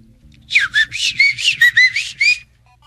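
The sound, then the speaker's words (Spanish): A man whistles to call his dog: a rapid run of about eight short, sharp whistles, loud, with a warbling rise-and-fall on each note and nothing else around them. “Y le chifla a su perro.”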